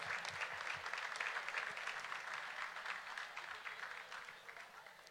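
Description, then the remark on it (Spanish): A crowd applauds steadily, a dense wash of many hands clapping at once, holding fairly loud for several seconds before easing off slightly toward the end, welcoming Lucio, the Brazilian champion central defender, at a presentation of the Cup trophy in Ecuador. “Un fuerte aplauso para Lucio.”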